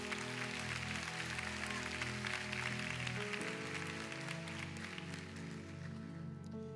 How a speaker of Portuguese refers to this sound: Se é para o Senhor, aplauda mais forte.